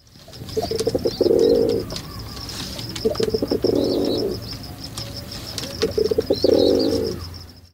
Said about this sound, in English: Take the rock pigeon. These guys court each other with gentle coos, and to signal distress, they use a harsh grunt.